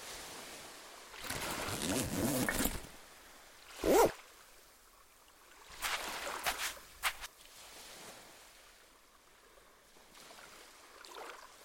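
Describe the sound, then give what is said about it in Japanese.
A backpack zipper is pulled open in a few quick, raspy strokes to take out binoculars during kite flying, with brief rustling and handling noises in between and no one talking. “そこのリュックに双眼鏡が入っていますので使ってください”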